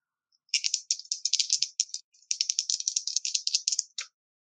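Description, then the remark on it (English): Dice rattle briskly in a cup or hand for several seconds, a dense clatter of small hard clicks with a brief pause, then a final clack as they land. Fairly loud, with no voices. “That's going to be a six.”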